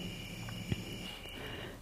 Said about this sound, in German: Hier hört man richtig Urwaldatmosphäre.